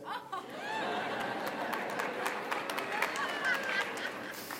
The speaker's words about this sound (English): That's cute that some of you are applauding. I don't know what that means.